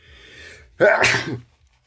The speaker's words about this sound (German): oh, sorry, wirklich alle haben sich direkt krass erschrocken. Ist mir schon zum zweiten Mal passiert, dass ich im Podcast so niese ohne Ankündigung. Live alle Leute erschrecken sich immer so krass. Oh, wirklich, sorry, ich habe Heuschnupfen, ne?